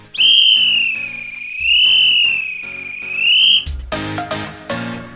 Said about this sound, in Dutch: Je moet wel op een station, op het perron moet je hem affluiten.